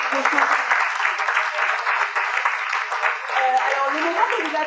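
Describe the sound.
Sustained audience applause for an artist who has just performed, a dense steady patter of many hands clapping at even loudness throughout, with a few faint voices and cheers mixed in.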